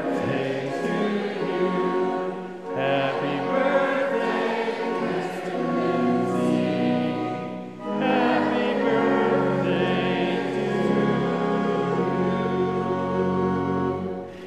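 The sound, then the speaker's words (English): A large group sings Happy Birthday together for a pastor in full, sustained harmony over steady instrumental accompaniment, the song flowing in long phrases with brief breaths between them. “a happy birthday, maybe with choral help?”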